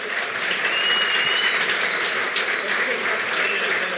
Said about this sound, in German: Applaus für Andreas Nommensen.